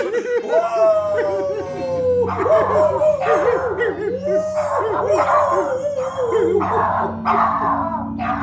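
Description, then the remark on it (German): A person howls like a wolf in long, wavering rising-and-falling cries, repeated several times, with other voices and laughter mixed in around the howls. “Und ich, ich bin ein Wolf.”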